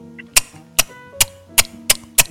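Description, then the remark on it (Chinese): A person imitates a gecko's chirping call, made with the side of the teeth, as six sharp, dry clicks in a steady, evenly spaced rhythm, fairly loud, with no talking over them. “手工的叫声是这样子的。”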